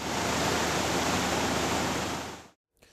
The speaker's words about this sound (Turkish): Kaş ilçesinde aşırı yağış nedeniyle Ahatlı mahallesindeki dağlık alanda sel oluştu. Ormanlık yamaçtan sel suları şelale oluşturarak aktı.